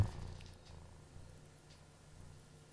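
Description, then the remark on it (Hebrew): A domestic cat purrs steadily, a soft, continuous low rumble with a slight rhythmic pulse, quiet and alone without any talking. “כן, זה גרגור של חתול. ככה, ככה החתול נהנה.”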